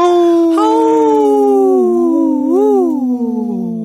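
A single long wolf howl rings out loud, holding a steady wavering pitch before swelling upward near the end and trailing off, with no talking over it.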